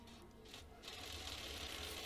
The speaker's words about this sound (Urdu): ابھی تو ہم اس کیمرہ سے کچھ ڈھونڈنے کی کوشش کر ہی رہے تھے کہ اچانک فلور پر موجود سارے پرنٹرز ایک ساتھ چلنا شروع ہو گئے کیش رجسٹرز کی آواز آنے لگی